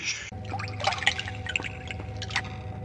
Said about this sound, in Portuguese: mas quando você passa em frente a uma você ouviu o som de água, água escorrendo, né? Água como se fosse um córrego.